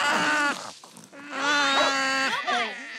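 Three strained, nasal squeaks and whines of the creature Iti, made from a mix of sea lion and dog sounds, blending sea-lion-like barks with dog-like whimpers, fairly loud, with pitch sliding up and down and short pauses between calls.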